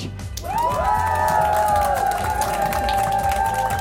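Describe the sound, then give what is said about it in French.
A concert audience at a French music concert at Grand Contrôle Paris 12, seated, masked and distanced, bursts into loud applause and cheering, with sustained rising whoops and shouts over steady clapping that swells after a brief quieter start. “On remet le son live, les éclairages, la scène, tout pour retrouver la scène et le public au rendez-vous, assis, masqué, distancé, mais pas muet.”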